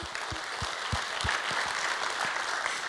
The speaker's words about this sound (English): But before we do that, can we please give our new guests another round of applause? Welcome them to our family.